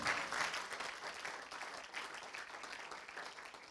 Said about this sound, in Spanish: Si lo cree, dele un aplauso al Señor.